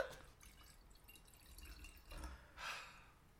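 Wine being poured into a glass, a soft liquid trickle with a few gurgling splashes that swell near the end. It is quiet, with no talking.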